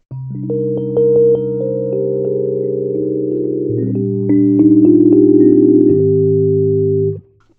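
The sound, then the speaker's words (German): Sustained electric piano chords ring out steadily with no talking, changing a couple of times as the tone shifts slightly in colour and brightness over several seconds while the Color control is turned from the middle to 100% and then from 100% to minus 100%, then stopping abruptly. “Und den drehe ich jetzt von der Mitte mal auf 100%. Und mal von 100% auf minus 100%.”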